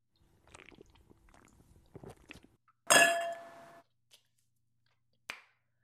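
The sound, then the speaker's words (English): Soft handling and mouth noises, then a loud glassy clink with a brief ringing tone as a drink is sipped, followed by a couple of small taps. No one speaks. “Y'all, I done had to pour me up a drink and light me a candle. When I tell y'all anxiety through the roof, hold on, let me take a sip.”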